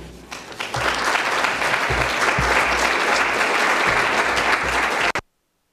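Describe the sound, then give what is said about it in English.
An audience breaks into steady applause welcoming keynote speaker Dr. Lawrence Haddad at a Global Food Security Project event, swelling within the first second and holding at full strength, a dense wash of clapping that stops abruptly after about five seconds. “Please join me in welcoming Dr. Lawrence Haddad.”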